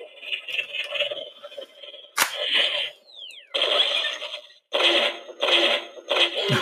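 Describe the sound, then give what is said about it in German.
An electronic toy plays spooky ghost sound effects: shrill warbling tones, a sharp click, a falling swoop, then several harsh buzzing bursts in quick succession, loud. “Und auch wieder mit verschiedenen äh, Geister-Sounds, die immer wieder auch äh, sporadisch auftauchen, die ähnlich äh, funktionieren wie beim MOD-Blaster.”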